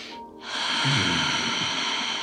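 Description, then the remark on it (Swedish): A long, steady hiss of breath drawn through a constricted throat, fairly loud, ujjayi-style yoga breathing: breathing out as through a closed mouth with the air let far back in the throat, with a low raspy rumble underneath and no talking. “Och så har man det här, liksom, det, man låter luften gå väldigt långt bak i halsen så att det låter...”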